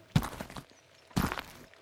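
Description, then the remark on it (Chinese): Two slow, heavy footsteps of a lame woodcutter walking with a walking stick in a mountain forest land about a second apart, each a soft thud with a crunchy scuff trailing off, over faint background rustle with no talking. “这天，山林里传来一个慢慢的脚步声。”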